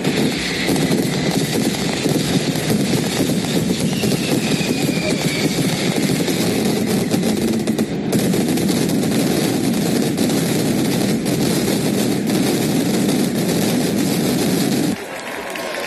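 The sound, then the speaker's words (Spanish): A relentless mascletà barrage of firecracker explosions, the first held in Madrid, with over 300 kilos of gunpowder fired at the Puente del Rey for seven minutes before some 20,000 people; a dense, loud roar of rapid cracks and booms that never lets up, ending abruptly near the close. “20.000 personas, calcula la delegación del gobierno, que asistieron a la primera mascleta en la capital, más de 300 kilos de pólvora que tronaron en el Puente del Rey durante siete minutos.”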